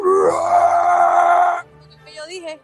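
A pitch-shifted recording of turtles mating, recorded in the water: a loud, sustained, steady moaning tone lasting over a second, then breaking off into quieter, wavering warbles that rise and fall.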